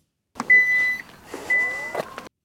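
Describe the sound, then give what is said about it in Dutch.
Two clean, steady electronic chime tones from a dashboard function of a Hyundai Ioniq 6, each held about half a second, with short clicks and mechanical shuffling around them and no voices. “Dat was het geluid van de Hyundai Ioniq 6.”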